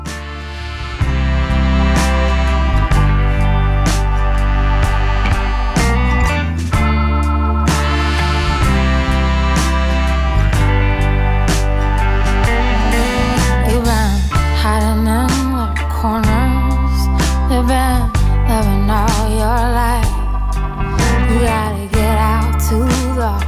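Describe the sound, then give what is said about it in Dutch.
A song by a Canadian singer-songwriter plays loud and steady, with warm sustained instrumental backing from the start and a lead vocal line entering around the middle, wavering expressively over the accompaniment. “En we gaan luisteren naar een singer-songwriter uit Canada”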